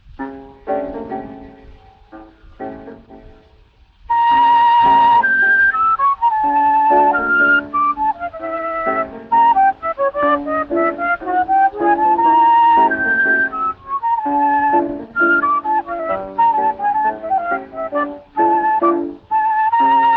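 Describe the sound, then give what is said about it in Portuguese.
An old recording of a lively Brazilian choro polka on flute, from around the turn of the 20th century, made for Casa Edison in Rio de Janeiro, with quick, ornamented melodic runs over steady accompaniment; a soft opening gives way to continuous, full-volume playing. “Escutem só que choro gostoso.”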